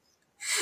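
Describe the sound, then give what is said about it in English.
A single sharp sneeze bursts out after a brief quiet moment, loud and breathy with no talking around it. “Bless you, bless you.”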